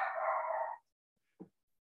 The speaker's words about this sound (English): And now I have to shut up my dog. One second.